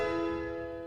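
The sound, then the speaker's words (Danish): The opening of Grieg's Piano Concerto, the piano entering after a drum roll: a loud piano chord rings out with a rich, bell-like resonance over a low orchestral rumble, sustaining and slowly fading through the brief moment with no voices. “Trommevirvel, og så kommer klaveret.”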